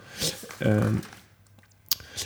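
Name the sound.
flipping through notebook pages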